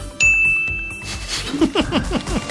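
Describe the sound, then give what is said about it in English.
A single gong is struck sharply as a sound effect announcing the Mystery Movie Moment segment, ringing out with a bright, sustained metallic tone that lingers for about a second before other busy sounds take over. “Ah, by the sound of the gong, it must be time for mystery movie moment.”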